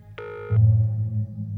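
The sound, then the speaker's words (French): A single short electronic telephone ring, bright and tonal, lasting under half a second, followed by a steady low hum like an open phone line. No one speaks. “Nous l'avons joint au téléphone pour en savoir plus sur cette confrérie nébuleuse obsédée par l'anonymat”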